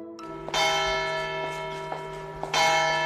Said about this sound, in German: Das hier sind die Glocken einer Kirche in einem französischen Städtchen namens Seyra. Klingen wie Kirchenglocken halt klingen, aber sie sind in den letzten Wochen zu einem richtigen Aufregerthema in der Stadt geworden.